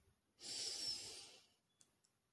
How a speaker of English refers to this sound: Then the next technique you will use, right, is breathing techniques. First, we're going to breathe in.